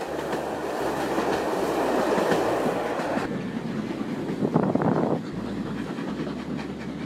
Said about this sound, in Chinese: 路过的人群向这列声名远扬的蒸汽小火车挥手问候，汽笛不时地在车轮急促的隆隆声中鸣响，似乎隐约间还可以闻见香香的烧煤的味道